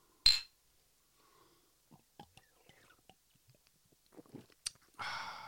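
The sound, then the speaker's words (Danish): Beer bottles clink together once in a bright toast in a studio, followed by faint handling noises, another sharp tap and a brief rushing hiss at the end. “Skål. Skål.”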